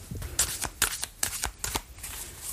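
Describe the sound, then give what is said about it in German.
Playing cards are shuffled in a quick series of crisp, papery riffles and slaps, repeating irregularly for a few seconds with no voices. “Man hört die Karten.”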